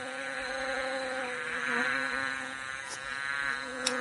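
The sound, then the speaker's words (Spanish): Bees buzz steadily around flowers in a garden, collecting nectar, a continuous droning hum that wavers slightly in pitch, with a couple of faint clicks near the end and no voices. “Las abejas acariciaban las flores para tomar de ellas el más sabroso néctar.”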